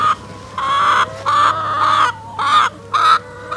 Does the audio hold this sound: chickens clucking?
yes